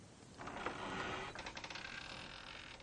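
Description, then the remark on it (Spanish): The rickety old wooden door of a rustic house is pushed open, with a drawn-out creak followed by a quick string of rattling clicks as it swings. No voices are heard. “Se detiene ante ella y la empuja.”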